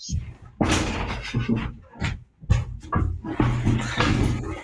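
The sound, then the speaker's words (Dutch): A door is opened, with scraping, rattling handling noises and a few dull knocks in a burst of movement lasting several seconds, and faint voice-like sounds mixed in. “Ik doe heel even de deur open, want dan, doe ik ik daar naartoe.”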